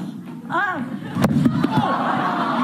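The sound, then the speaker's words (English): A sudden thud as comedian Heather McDonald's head hits the floor when she collapses while performing stand-up for a sold-out crowd, with a few quick sharp knocks right after, heard over a murmuring crowd and voices. “You can hear the sickening thud as her head hits the floor.”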